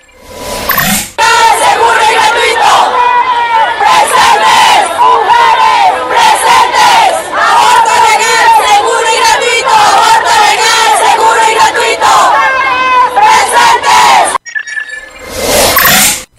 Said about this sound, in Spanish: tenemos eh, un audio de la campaña del aborto legal en Colombia, porque hubo diversas manifestaciones, como ya se los comenté, y, y vamos a escuchar cuál es la rabia de las chicas en Colombia.